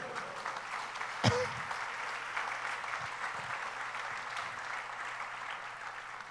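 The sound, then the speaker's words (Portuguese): A church audience claps steadily in praise of Jesus, a dense wash of many hands applauding over a low steady hum, with one sharp loud clap or thump standing out early on. “Quem crê, dá um glória a Jesus, aplauda o Cordeiro.”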